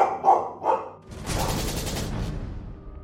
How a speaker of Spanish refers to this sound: La orden resonó en la oscuridad y el angosto túnel se llenó de estruendo. Por lo menos cuatro armas dispararon al mismo tiempo. Las balas zumbaron en desorden, Centellaron al estrellarse contra las paredes del túnel